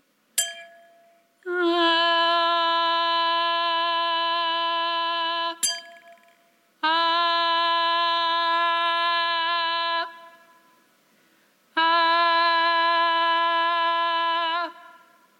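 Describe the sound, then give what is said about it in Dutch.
A wine glass with a straw in it is tapped with a bright ring, then a voice imitates the glass's fundamental tone, singing a steady matching tone held for several seconds three times with short pauses between, loud. “een hoofdtoon. En die kan ik proberen na te bootsen met mijn stem.”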